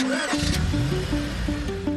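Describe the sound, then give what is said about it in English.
A car engine cranks and catches, then runs with a loud, throaty rumble that rises and dips in pitch as it revs over a couple of seconds. “Sure, you can buy a car online and have it delivered right to your door. But there are things you can't do until it's too late, like hear it”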